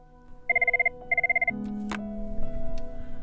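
A telephone call to a crisis helpline rings in two quick, warbling electronic bursts, followed by a sharp click as the receiver is picked up, and a low steady hum with no voices.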